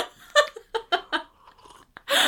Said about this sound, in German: Wie sie an ihrem Wasser schlürft.